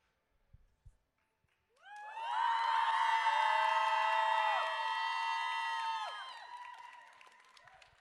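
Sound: audience shouting together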